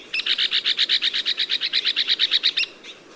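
An Arizona woodpecker gives a rapid, evenly spaced rattle of about twenty high, harsh notes lasting a couple of seconds, loud against a quiet background with no voices.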